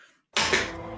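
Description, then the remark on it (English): A single sharp, loud knock of a marker struck against a tabletop like a gavel to deliver a mock verdict, followed by a brief ringing decay; no one speaks. “That's the sound of like a marker hitting a table.”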